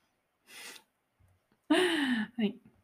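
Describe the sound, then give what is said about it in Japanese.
A sharp breathy intake is followed by a loud voiced burst and a shorter second puff, a person acting out a sneeze with their voice rather than truly sneezing. “もうわかったね、今。くしゃみが何か。これです。”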